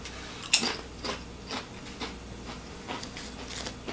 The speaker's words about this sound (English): Crunchy, crunchy like a chip.